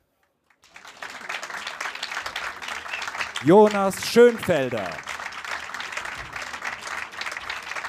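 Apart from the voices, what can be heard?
audience applause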